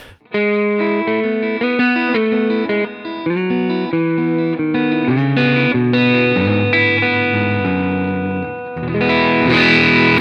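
An overdriven electric guitar fitted with Ron Ellis pickups plays a steady stream of sustained chords and melodic lines, with a bright, full tone, chorus-like shimmer and a slightly louder, denser strum near the end.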